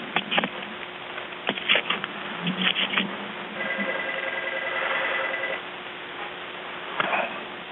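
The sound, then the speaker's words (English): Quick bursts of keyboard typing by an emergency dispatcher trying to get police sent out, clattering over a thin, muffled phone line in irregular clusters of clicks, with a steady humming tone rising in the middle and no one talking. “you can also hear him, like, you know, typing, typing. really quickly, trying to, like, get police out there”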